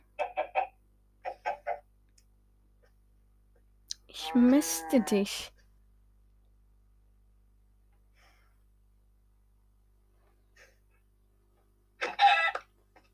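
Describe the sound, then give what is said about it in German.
Short, clipped chicken clucks from a video game come in a few quick bursts, then a brief spoken phrase sounds over a quiet background, and another sharp cluck arrives near the end. “Jetzt sollten die Hühner aber jetzt schon herangewachsen sein, oder?”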